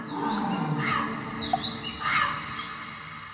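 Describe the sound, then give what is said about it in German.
Harsh, raspy calls of green, blue and red parrots gathered in the treetops squawk in overlapping bursts, a loud cluster near the start and another toward the end, with chattering calls filling the gaps and no voices. “Die grün, blau oder rot gefärbten Papageien erfüllen auf den Gipfeln der Bäume versammelt die Luft mit ihrem krächzenden Geschwätz.”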